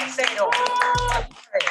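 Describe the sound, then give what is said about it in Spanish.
A short burst of hands clapping in applause, uneven, fading briefly before a final flurry, with a steady tonal hum running underneath. “Otro aplauso para el”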